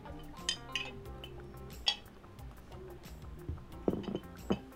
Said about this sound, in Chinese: 那我们来干杯吧，然后就开始我们的 好，干杯， 干杯。